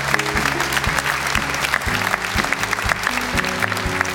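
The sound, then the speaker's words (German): A crowd applauds steadily for about four seconds, a dense, even crackle of many hands clapping, with a low stepping hum or musical drone running underneath. “Da kann man auch nur, gut, dürfte noch mal klatschen, finde ich.”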